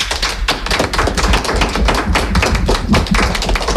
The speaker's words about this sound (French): Alors, les, on, va, on va les applaudir. Allez, on s'applaudit.